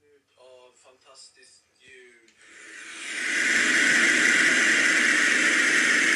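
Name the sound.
TV static hiss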